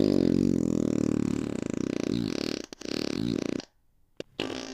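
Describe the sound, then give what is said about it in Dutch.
A long, loud fart, low and buzzing with a rippling sputter, runs for several seconds before cutting off. After a short silence, a brief final blast follows. “Op een avond liet hij ongewild een knaller van een schiet die de hele zaal horen kon.”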